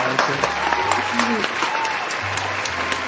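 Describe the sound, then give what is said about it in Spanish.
Steady applause fills the few seconds, a dense patter of many hands clapping, with faint voices and tonal sounds murmuring underneath. “Lo cual pues es de agradecerse y se merece un aplauso, ¿verdad?”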